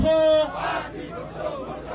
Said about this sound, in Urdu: mayor کے انتخاب میں دھاندلی کے معاملے پر جماعت اسلامی نے ملک گیر احتجاج کیا اسلام آباد پریس کلب کے سامنے بھی جماعت اسلامی کے کارکنوں نے احتجاج کیا اور نعرے بازی کی